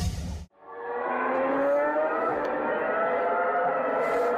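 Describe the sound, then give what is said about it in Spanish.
Loud, high-pitched Formula 1 engines scream continuously, their whining pitch climbing and sliding as the cars rev, following a short burst of noise and a brief drop at the start. “Bueno, ojo, eh, obviamente estamos escuchando el sonido poderosísimo de los motores de los carros Fórmula 1, los coches más rápidos del mundo.”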